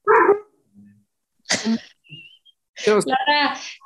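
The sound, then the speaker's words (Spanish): An adolescent female dog barks in separate bursts: a sharp bark, a pause, another bark, then a longer run of yappy barks near the end, fairly loud. “tu, tu perra adolescente ya te trae hasta la madre.”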